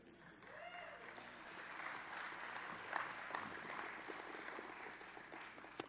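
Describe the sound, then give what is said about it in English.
Sustained audience applause for the 2018 graduates, a dense wash of clapping hands at steady volume for several seconds, with a few scattered cheers rising through it. “All right, I think I think just one more round of applause for the graduates of 2018.”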